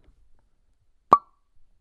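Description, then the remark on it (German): A single sharp pop of a bottle of Gösser Naturradler being opened, fairly loud, with a brief hollow ring afterward; otherwise near silence with faint rustling before it. “Ich trinke einen Gösser Naturradler.”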